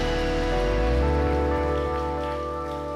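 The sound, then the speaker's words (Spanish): An audience applauds for the King of Kings in a dense, steady wash of clapping, with sustained keyboard chords holding underneath. No one speaks. “Vamos, ese aplauso puede ser mejor.”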